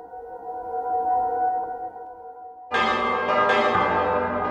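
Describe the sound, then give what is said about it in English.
A low, sustained hum of ringing bells gives way to a sudden, loud crash of emergency bells from the west side of a town during a backup test, bright and intense, with fresh strikes layering over the long ringing decay. “And then there is another crash of bells coming from the west side of town. It is, again, ringing and sudden and intense, and you all kind of jump,”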